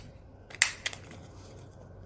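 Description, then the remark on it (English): A sharp crunching snap from a corner punch rounding the corners of paper while decorating, followed by a second, softer click a moment later, both brief against a quiet background. “This one I'll round the corners”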